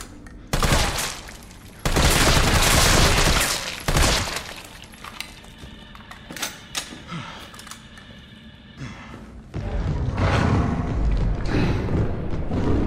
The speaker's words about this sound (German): Zombie für Zombie erschoss Carlos.